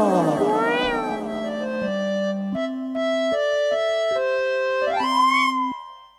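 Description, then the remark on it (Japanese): A drawn-out, sing-song meow from a cat named Kaede, fairly loud, its pitch stepping up and down in a rising melody with a brief upward glide near the end, fading out afterward. “猫の楓です”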